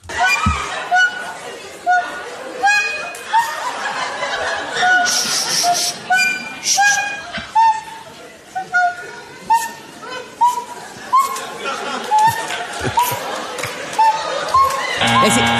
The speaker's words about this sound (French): Ce que vous entendez, c'est vraiment quelqu'un qui joue de la flûte à bec.